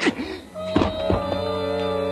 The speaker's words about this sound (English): He hit me with the gun.